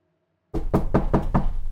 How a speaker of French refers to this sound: Donc là, il y a quelqu'un qui frappe à la porte. Euh, donc la porte s'ouvre et il y a un, homme en tenue de, police qui arrive avec tout un tas de, dossiers dans la main.